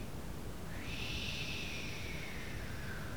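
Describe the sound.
A person imitates ocean waves at a beach with one long, breathy hiss that swells in and slowly tapers off over a few seconds. It is fairly quiet, with no other talking.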